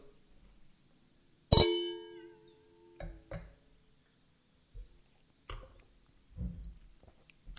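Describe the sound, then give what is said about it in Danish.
Two champagne glasses clink once in a bright toast that rings and fades for about a second, followed by several quiet sips of champagne and swallowing sounds, with no talking. “Skål derude.”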